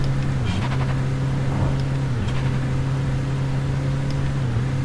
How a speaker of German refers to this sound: Jetzt haben wir auch noch Motorstörungen. Und hier ist auch weit und breit niemand. Er ist ausgegangen. Mein Motor ist aus. Ich sehe nichts. Mein Motor ist aus.